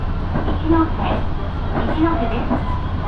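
A local train on the Minobu Line in Japan, travelling from Minobu toward Ichikawadaimon, rolls along the rails, heard from inside the carriage as a steady low rumble with faint rhythmic clatter and brief motor whines rising over it.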